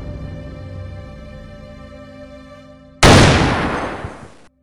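A low, steady tonal drone plays for a few seconds, then a single loud gunshot cracks out abruptly and rings off in a long, fading tail. No one speaks.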